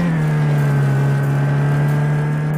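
A racing car engine in an audio racing game drones at a steady, loud pitch with a strong low hum and faint higher harmonics, holding nearly constant throughout with no speech.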